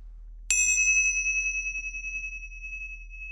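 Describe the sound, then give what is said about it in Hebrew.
A single strike of small meditation cymbals, sounded at the start of a guided meditation practice, rings out with a bright, high metallic tone that sustains and slowly fades, shimmering overtones hanging in the air. Nobody speaks. “אוקיי, okay, אז הנה, את מוכנה כבר עם המצילות.”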